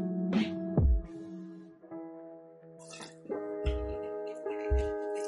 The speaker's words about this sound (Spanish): ya he terminado de beber agua, por si no habéis dado cuenta,